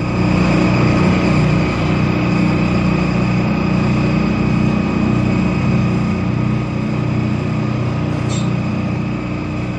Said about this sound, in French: Le vrombissement, mot qui définit déjà à lui seul le son qu'il décrit, vrombir.